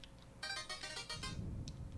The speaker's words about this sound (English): Meanwhile, duck hunt. That's my text messages.